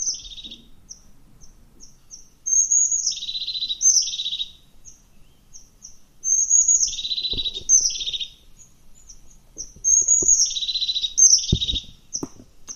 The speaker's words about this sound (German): Die Haubenmeise. Ich spiel mal ja, die Haubenmeise ja, ab.